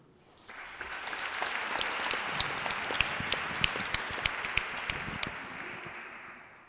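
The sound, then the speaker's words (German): A crowd applauds steadily, a dense wash of many hands clapping that starts abruptly, holds at an even level with a few sharper individual claps standing out, then tapers off. The audience is applauding a speaker as he is introduced before a sermon. “Also sowohl euer Applaus als auch die Vorstellung von Ursula sind quasi sowas wie Gnade”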